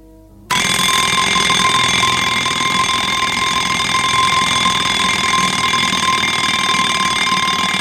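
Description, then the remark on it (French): After a brief moment of quiet, an alarm clock goes off at six o'clock, bursting into loud, continuous ringing, a harsh, high metallic clatter that keeps going without a break. “sonné à six heures. Philippe se réveille en sursaut de mauvaise humeur.”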